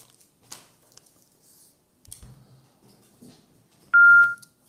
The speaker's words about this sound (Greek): Ναι, μπράβο. Αυτός έκλεισε το τηλέφωνο.